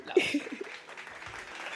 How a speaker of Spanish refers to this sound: Faltan los aplausos. que... Faltan los aplausos, sí, eso. Vamos, DJ.